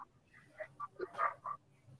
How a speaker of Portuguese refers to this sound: se ouvirem alguns cães ladrar, peço desculpa, pessoal, é aqui da minha, yeah. Hum, hum, da, da, minha rua.